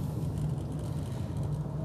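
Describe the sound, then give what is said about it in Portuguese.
A steady, continuous low rumble of a car driving in heavy traffic in São Paulo on a sunny day, with a faint engine hum and road noise that stays even throughout and no voices. “O trânsito está carregado.”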